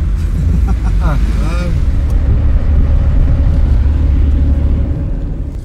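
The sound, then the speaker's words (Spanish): A steady, loud low rumble of a car moving along a road, constant throughout, with a brief burst of voices near the start. “…, en el camino, saluda desde su carro a una patrulla militar que vigila”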